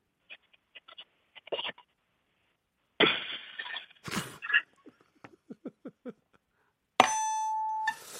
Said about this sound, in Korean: 자 밥솥 마지막에 밥 다 돼서 이제 그 아, 김 터지는 소리 네. 한번 들어보겠습니다. 이건 뭐 다들 아, 아실 테니까 공감대가 있을 겁니다.